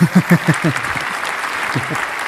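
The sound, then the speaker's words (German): A steady wash of crowd applause fills the whole moment, dense and continuous, while a voice briefly sounds over it at the start and again near the end. “Großen Applaus.”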